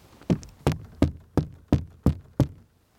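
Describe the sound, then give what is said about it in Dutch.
Seven sharp knocks on a hollow plastic mesh barrier in heathland with fens, evenly spaced at a brisk steady pace, clear with short resonant decays and no voices. “Dit klinkt als kunststof.”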